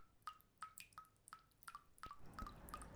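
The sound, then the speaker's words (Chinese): Dark soy sauce spilled from a knocked-over jar spreads across a table and drips off its edge: about nine small, bright plinking drops falling in a fairly steady rhythm, each with a short ringing tone, over a soft hiss that grows slightly toward the end. “乌黑的液体洒了出来，慢慢地从桌上摊开，蔓延到桌边，一点一滴的落下。”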